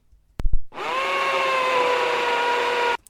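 A couple of quick clicks, then an electric drill whirs steadily at a constant pitch for over two seconds before stopping abruptly. Loud, with no voices.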